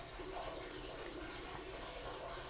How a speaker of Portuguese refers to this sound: Olha o barulho do chuveiro aqui dos meninos.